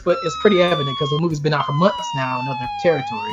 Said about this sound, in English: Spoilers, once again, if you hear sirens in the background, big spoilers,